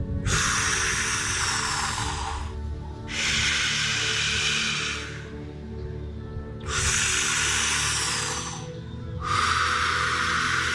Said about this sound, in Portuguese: acelera levemente seu movimento de respiração.